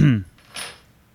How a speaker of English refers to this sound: and I want to be very clear as I'm unfurling this piece of paper that she's making me read off of.